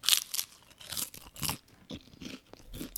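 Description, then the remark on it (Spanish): Loud crunching as someone chews a crisp rice cake, with sharp dry bursts coming every half second or so in an uneven rhythm, and no talking. “Pero ustedes están escuchando lo crujiente de mi rice cake.”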